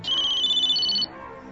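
signal or alarm, cell phone ringing

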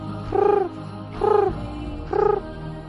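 bird, pigeons cooing

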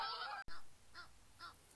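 bird, geese honking

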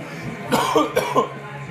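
human body sound, coughing from smoke

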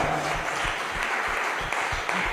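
crowd, audience applauding

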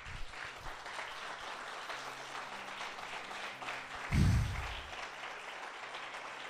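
crowd, audience applauding

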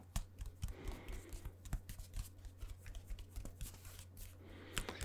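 household object, rustling paper

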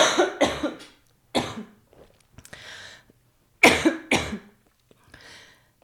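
human body sound, repeated coughing

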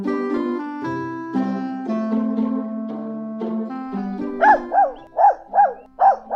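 animal, dog barking

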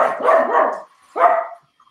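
animal, dogs barking

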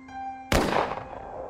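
sound effect, gunshot sound effect

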